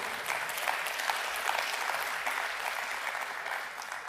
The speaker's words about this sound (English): And so every single part of our service, yeah, let's applaud that too.